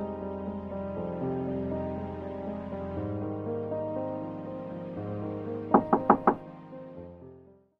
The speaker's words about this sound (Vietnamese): Ông là ai? có chuyện gì lại gõ cửa nhà tôi